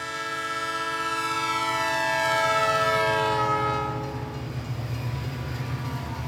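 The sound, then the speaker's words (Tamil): A long, loud train horn blares steadily for several seconds as a train departs from the fourth platform of a station in the rain, then fades as the low rumble and clatter of the train pulling away take over. “இருவரும் ட்ரெயின் கிளம்பும் சில நொடி முன்பு எஸ்திரி கோச்சில் ஏற ட்ரெயின் புறப்படுகிறது”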